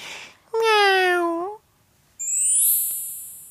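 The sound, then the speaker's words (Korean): A single drawn-out, high-pitched "meow" voiced by a person imitating a cat as part of a cute "cat whiskers" gesture, clear, followed after a short pause by a bright, ringing chime-like effect that slowly fades. “거기서 고양이 소리까지 해야 돼.”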